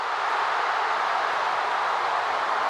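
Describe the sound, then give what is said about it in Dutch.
A huge stadium crowd in Sydney, Australia, roars continuously at the World Cup final, a dense, loud wall of cheering noise that stays steady throughout, with no single voice standing out. “Ja, dat is het geluid van het kolkende stadion in Australië in Sydney bij de WK-finale.”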